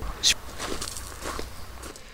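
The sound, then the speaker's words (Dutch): Footsteps walking at an unhurried pace across a cemetery, a handful of soft, crunchy steps with a faint outdoor background and no voices. “Kunnen we er even heen lopen? We lopen er even heen.”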